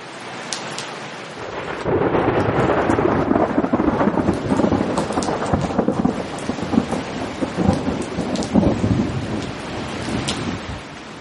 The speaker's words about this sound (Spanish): Uy, está empezando a llover.